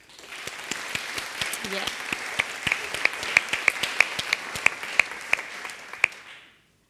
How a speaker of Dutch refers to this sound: Geef haar een hartelijk applaus. Hier is Clarice Gargert.